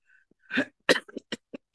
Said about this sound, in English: Excuse my cough.